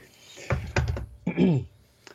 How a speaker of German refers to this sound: Ich mache mal die Tastatur weg.